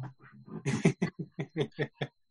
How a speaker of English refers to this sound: Can you guys hear my dog now, right now? Yes. Yep.